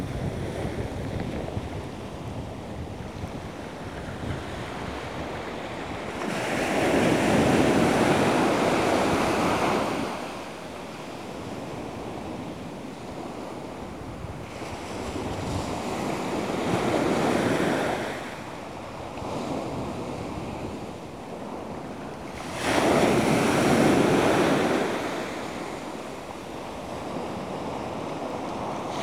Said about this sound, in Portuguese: Sentimos as ondas do mar. Sentimos o relaxamento das ondas do mar.